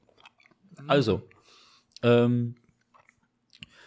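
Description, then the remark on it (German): Soft chewing of cocoa-filled koala biscuits with small crunchy mouth clicks scattered through the pauses, broken by a brief murmured voice and a short spoken phrase. “Was naschst du gerade? Ich nasche äh, Koalas.”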